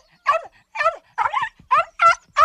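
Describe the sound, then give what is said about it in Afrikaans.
A small puppy in a kitchen yaps in a quick series of six high, sharp barks, evenly spaced, with no voices around them. “Wonder sy en draf so toe. En ja, so waar, dit is 'n klein hondjie.”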